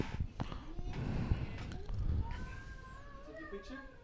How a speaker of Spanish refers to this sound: Te están guayando los gatos. En la realidad. Eso no es de la película.